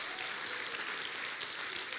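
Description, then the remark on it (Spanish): An audience applauds together, a dense, steady wash of many hands clapping that holds at an even, moderate level for the full two seconds with no voices standing out. “Ya, dele un aplauso al Señor porque ya tiene dos olvidados.”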